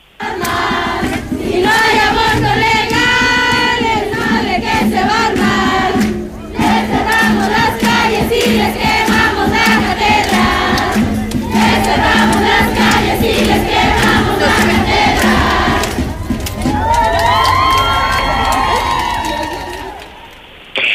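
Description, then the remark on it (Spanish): A loud protest crowd chants and cheers continuously for about twenty seconds at a night-time September 28 mobilization in Aguascalientes, Mexico, many voices shouting in rhythm, with higher, shrill cries and whistles rising near the end. “Ya es una tradición que cada 28 de septiembre se realicen estas movilizaciones a nivel nacional e incluso aquí en Aguascalientes,”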